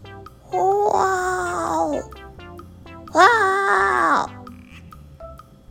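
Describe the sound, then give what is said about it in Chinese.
A voice imitates a lion's roar in two drawn-out, wavering calls separated by a short pause; the roars are fairly high-pitched and thin, more whiny than fierce. “所以这个不够大声的吼叫声完全没有吸引任何人的注意。”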